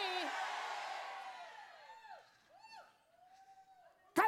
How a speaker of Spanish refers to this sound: A la cuenta de tres me va a decir un buen amén, aleluya. Pero como dice, como dice la Biblia, uno, dos, tres.